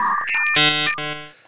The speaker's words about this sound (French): c'est le son du online que toi tu avais